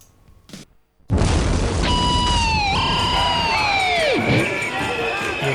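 After a brief quiet moment, a loud rock track played on Bermudafunk radio crashes in with dense, roaring noise and sustained high guitar tones that bend and waver, one swooping sharply downward before steadying again.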